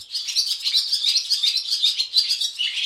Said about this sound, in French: cliquetis permanent des hirondelles qui, qui tournent. C'est hyper enivrant. Et, euh, parce que tu as le son et tu as le mouvement de tourbillon des hirondelles.